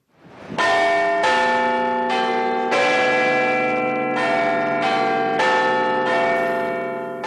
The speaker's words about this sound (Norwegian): Det er første gang på 60 år at klokkene i Big Ben kimer utenom sine faste tider. Den gang, i 1952, var det i anledning begravelsen til kong Georg 6. Nå er anledningen muntrere. Det er første dag av de 30. olympiske sommerleker.